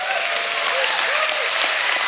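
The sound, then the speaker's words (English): An audience claps and shouts together in a dense, steady roar of applause, with raised voices and whoops rising and falling over the continuous clapping. “And he made you better shout and clap right now”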